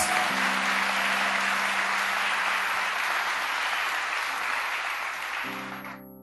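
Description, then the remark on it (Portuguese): A sustained round of applause at a church service welcoming new members into the All Church. Dense, steady clapping fills about six seconds before tapering off, with a low sustained musical tone underneath and no talking. “Receba a salva de palmas.”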